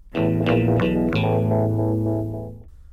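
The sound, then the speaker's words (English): A short distorted electric guitar riff plays alone as a song's musical transition from verse to verse, several quick chords struck in succession and then left ringing out, fading over a couple of seconds. “There is a musical transition that moves the song from verse to verse. It's it's a short little guitar riff that goes, you know, dum dum dum dum.”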